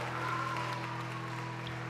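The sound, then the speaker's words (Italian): Steady, dense applause from a theatre audience at the end of a tragedy as the actors come back out for their bow, many hands clapping together in a continuous crackling wash at an even, moderate loudness throughout, with no voices standing out. “Gli attori escono dietro le quinte, applaudi come tutto il resto del pubblico applaude.”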